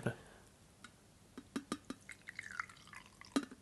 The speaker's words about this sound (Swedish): Häll upp nu nära micken din där Victor, så folk, får, folk får höra.